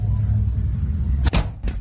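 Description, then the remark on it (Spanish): A steady low engine rumble, then a sudden sharp crack as a car's window glass is struck and shatters, followed a moment later by a second bright crash as it is hit harder. Loud, with no voices. “Y otra vez le vuelve a dar más recio, pero quiebra el vidrio de su carro el vato.”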